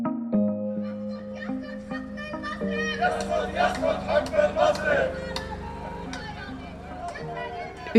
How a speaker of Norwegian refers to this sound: utenfor sentralbanken i Beirut, hovedstaden i Libanon, så var det samlet en rasende folkemengde, hundre, par hundre mennesker kanskje, som bar plakater og veivet med dollarsedler og eh, brølte at eh, nå hadde de fått nok